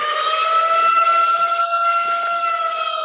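A loud siren holds one steady, high wailing tone with a buzzy, layered quality for about three seconds, without rising or falling in pitch, and no one speaks over it.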